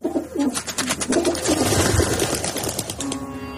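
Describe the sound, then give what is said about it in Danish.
Pigeons coo in low, throaty warbles, a few birds overlapping in a steady rolling rhythm, moderately loud, with a faint mechanical whir and rustle underneath. “Vi skal snakke om duer.”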